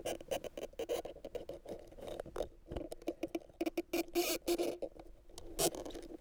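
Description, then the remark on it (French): A microphone rubbed against a succulent plant, making dry scratching and crackling rustles in irregular bursts with brief pauses, no voices present. “Sur plante grasse.”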